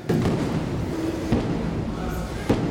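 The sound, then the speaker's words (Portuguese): Dull explosion booms thud out roughly a second apart, three in all, over a constant low rumbling background with no voices, heard while people shelter under a road viaduct as sirens warn. “São longos minutos ouvindo os estrondos.”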